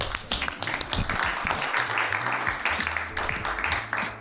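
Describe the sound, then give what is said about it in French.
A group applauds steadily for a few seconds, dense clapping at moderate volume with some voices mixed in beneath it. “Vous pouvez tous vous applaudir parce que tous très sérieux.”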